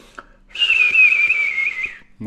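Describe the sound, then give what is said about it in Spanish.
A person whistles in imitation of a little bird, one sustained high-pitched note that wavers slightly for about a second and a half, loud and on its own without talking. “Que le dabas en la espalda y hacía el sonidito este que hago yo de los pajaritos.”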